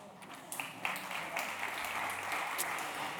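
A church audience applauds during a sermon quiz, as a drink voucher is awarded, a dense wash of many hands clapping at once with a few sharper claps standing out, holding a fairly even loudness throughout.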